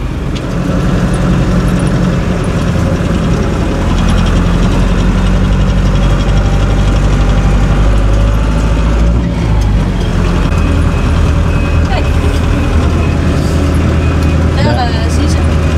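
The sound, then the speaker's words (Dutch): A car drives along a road beside reeds in fine weather, its engine producing a steady, loud, low rumble that continues without a break, with some talking over the drone. “Ehm, we stoppen nu naast een stukje, eh, we rijden langs een weg waar het, riet”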